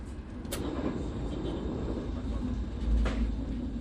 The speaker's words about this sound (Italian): Sul treno che mi riporta a Roma